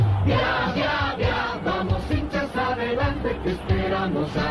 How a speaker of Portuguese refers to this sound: O que você acabou de ouvir é um jingle do canal Ovacion da Bolívia antes da Copa de 1994.